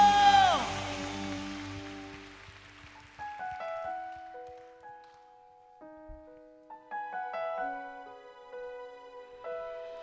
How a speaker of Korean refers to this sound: 승리하신 예수 그리스도, 우리를 향한 당신의 사랑을 어떤 경우에도 취소하지 않으시는 신실하신 우리 주님께 우리가 할 수 있는 최고의 영광과 감사의 박수 올려드립시다. 할렐루야!